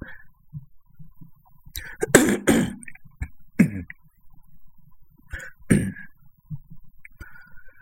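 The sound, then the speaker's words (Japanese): A series of harsh, raspy throat clearings: a heavy double burst near the middle, a shorter one after, then another sharp clearing, with quiet breathy gaps between. “ちょっとあの、一瞬ミュートします。咳払いするので。”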